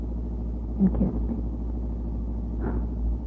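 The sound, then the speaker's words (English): A steady, low engine rumble from a car on the move fills the background while a person speaks briefly over it. “Park the car beside the road for a minute, dear,”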